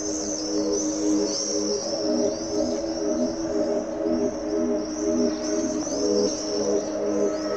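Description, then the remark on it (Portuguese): Swifts calling as they fly around the walls of apartment buildings surrounding town squares in the Trás-os-Montes region of northern Portugal: shrill, high screeching calls repeating throughout, some overlapping, above a steady low droning hum. No one speaks. “já sabemos que nos espera a dança dos Andorinhões”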